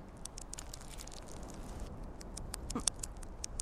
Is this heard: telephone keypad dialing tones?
no